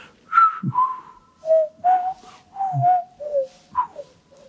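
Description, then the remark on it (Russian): A person whistles the main theme of a concerto, a classical melody of clear, sliding notes grouped into short phrases with brief pauses between them, with no talking. “Я могу насвистать там главную партию его концерта.”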